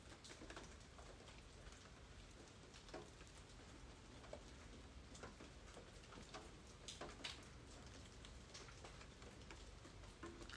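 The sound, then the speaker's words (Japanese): Steady, soft rain falling, a continuous gentle hiss scattered with irregular drops ticking and tapping on a surface, with no voices. “それでは自然にだけど少し吐く息は長めに意識しながら鼻から吸って鼻か口どちらかから吐く呼吸を繰り返しながら意識を雨の音に向けていきましょう”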